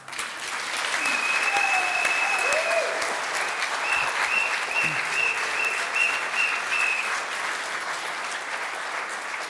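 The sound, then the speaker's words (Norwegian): A crowd in a hall applauds a cheering group standing there. The applause holds steady for several seconds, a dense wash of clapping at an even loudness, with a few faint whistles or cheers rising briefly above it. “Kan ikke dere klappe litt for dem?”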